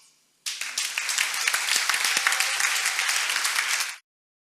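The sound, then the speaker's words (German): A burst of audience applause, for the people who prepared the evening's music, play, decoration and technology, starts abruptly and holds steady for about three and a half seconds, dense overlapping claps with a few sharper individual hits, then cuts off cleanly. “Dieser Applaus und viele andere auch noch, der ist für euch.”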